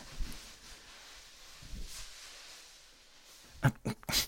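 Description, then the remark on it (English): Soft cloth rustling of a towel rubbing a dog dry after its bath in the tub, quiet and steady at first, then a few brisk, louder scrubbing bursts near the end. No one speaks. “Just let me towel you off.”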